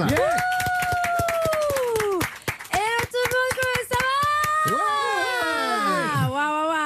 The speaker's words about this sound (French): Euh, et merci d'accueillir celle qui va tirer le portrait de Bruno Solo. à là. Applaudissements pour Thaïs